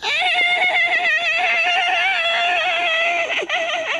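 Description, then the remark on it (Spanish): A loud horse neigh sound effect rings out in a long, quavering whinny with wavering pitch that drops slightly toward the end, with no talking over it. “Ah, no tengo efecto. Ah, ya lo encontré. Iba el caballo.”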